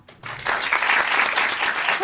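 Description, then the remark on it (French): An audience bursts into steady applause after a brief quiet moment, voting by applause for preferring to fall asleep with cold feet; many hands clapping in a dense, sustained wash that holds at full loudness until the end. “Par applaudissement, qui préfère s'endormir avec les pieds froids”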